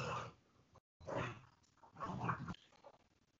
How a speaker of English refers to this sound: Sounds like he's being attacked by a dog, this poor guy. That's my cat. That's your cat making that noise? it's my cat being attacked by the dog.